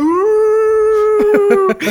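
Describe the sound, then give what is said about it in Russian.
A person imitates a wolf howl, one loud, drawn-out vocal tone that rises slightly and holds steady for nearly two seconds before breaking into a few short, throaty pulses. “«А, мы тебя найдем, мы выебем, мы выебем весь твой экипаж, сука, у, мы волчья стая,”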